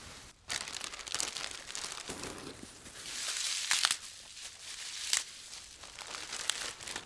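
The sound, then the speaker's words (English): Steady crinkling and rustling of plastic bags as leafy greens, kale and curly parsley, are packed in, a cup of each per bag, with a few sharper crackles standing out over continuous soft handling noise; no one speaks. “So, I'm going to put a cup of each one in each bag.”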